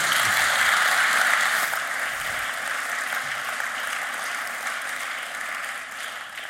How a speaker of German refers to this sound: aber danke dir schon mal vorab und nochmal einen herzlichen Applaus